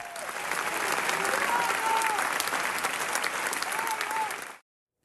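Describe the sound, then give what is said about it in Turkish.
Dense, sustained standing ovation lasting minutes from a large crowd in the concert hall at the end of a Fazıl Say concert on his tour in Spain, steady and loud with a few faint cheers or whistles rising through it, then cutting off abruptly near the end. “Fazla Say konserinin sonunda dakikalarca ayakta alkışlandı.”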